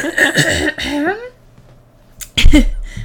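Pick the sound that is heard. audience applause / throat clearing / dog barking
throat clearing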